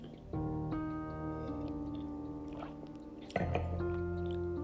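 A drink being sipped, with wet slurping and squishy liquid noises carrying a steady pitched, whistling tone that shifts twice and swells louder near the end, with no voices.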